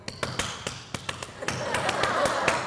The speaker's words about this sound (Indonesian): Ah, itu tepuk pramuka itu, Bos. Nah, itu.